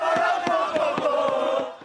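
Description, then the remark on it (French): A large crowd of football supporters chants and shouts together in unison on the Champs-Élysées late in the evening, their voices loud and sustained, punctuated by steady rhythmic claps or beats roughly three times a second. “Sur les Champs-Élysées, encadrés par un important dispositif de sécurité, les supporters auront donné de la voix jusqu'à tard dans la soirée sans incident majeur,”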